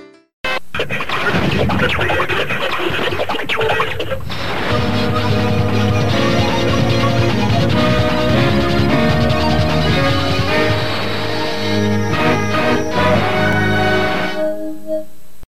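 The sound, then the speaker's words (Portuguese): The first opening jingle of TV station Rede TV, channel 9 São Paulo, launched in 1999: a noisy, crashing burst of sound gives way to loud, full orchestral-style music with sustained chords and a bright swelling melody, ending on a short final tone. “Vamos ouvir uma vinheta aí da Rede TV, a primeira vinheta da Rede TV.”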